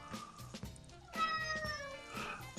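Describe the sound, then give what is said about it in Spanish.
A female cat meows several times in a row, drawn-out wavering cries with a whiny, complaining tone, moderately loud, with no talking over it. “Hasta la gata está de acuerdo.”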